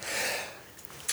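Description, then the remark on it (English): A single sneeze, heard as a long airy, hissing burst of breath that fades out, followed by a brief sharp sniff at the end. No one speaks. “Bless you.”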